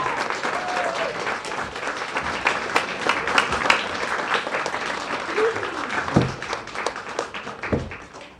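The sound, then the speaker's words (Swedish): An audience applauds steadily on stage for the first contestant of the junior category, dressed as Supergirl. Dense overlapping claps form a sustained wash of noise, with a few brief whistles or cheers rising above it partway through. “Bra, håll applåden uppe nu för Emelie.”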